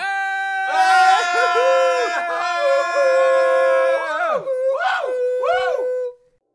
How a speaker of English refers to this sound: I'd like to now ask for a moment of silence in his memory. And also, a moment of yelling I think he really would have appreciated that.